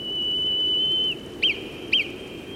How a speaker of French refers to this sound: on dirait le code morse. Mais Nino, qui fait ce genre de sifflement